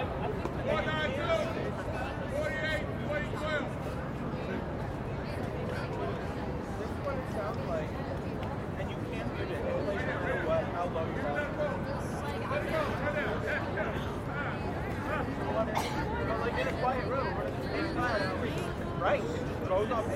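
Dense chatter of many tourists fills busy Times Square, overlapping voices blending into a steady, unbroken hubbub at an even loudness for the whole stretch, with no single speaker standing out.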